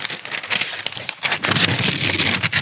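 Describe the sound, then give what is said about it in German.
Paper tearing: a paper envelope ripped open in a few raspy, crackling pulls, getting longer and louder toward the end, with no talking over it. “Ah, das klingt immer geil, wenn man Papier zerreißt.”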